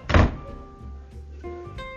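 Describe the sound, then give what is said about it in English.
A door slams shut once, a loud, heavy thud that hits hard and fades quickly, leaving faint sustained tones ringing on behind it. “There's the door”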